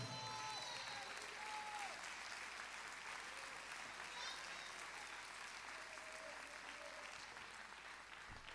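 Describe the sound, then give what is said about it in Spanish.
A church audience applauds for the Lord during a sermon on tithes: sustained applause fills the whole stretch, a dense steady clatter of many hands clapping with no pauses, joined by scattered voices and a few faint high calls. “Si lo cree, dele mejor aplauso al Señor.”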